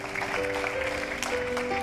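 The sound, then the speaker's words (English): A church audience claps steadily for the volunteers in a dense, continuous patter while a sustained keyboard chord holds underneath. The applause stays fairly even throughout, with no voices standing out. “And I hope that you are clapping for you too.”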